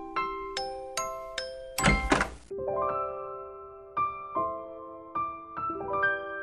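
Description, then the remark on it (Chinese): A door opens with a short, loud rattling burst, set among a bright, tinkling chime melody of bell-like notes that ring out one after another and keep playing afterward. “那么，请开门吧。”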